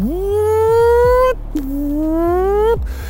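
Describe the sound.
A voice mimics an alarm siren: two long wailing tones that each slide upward and hold, separated by a short break. Loud, with no other sounds.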